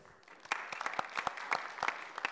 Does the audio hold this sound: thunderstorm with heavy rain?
no